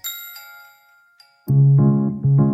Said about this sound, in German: Zuerst stellen Sie für das Glockenspiel einen mittellauten Pegel ein.